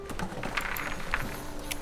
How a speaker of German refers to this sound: Eine Reinigungskraft leert die Papierkörbe.